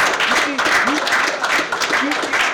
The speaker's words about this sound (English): You, you, you, you, you hear the power behind that clap. That's that's a meat clap. Right, right. That's a, that's a strength.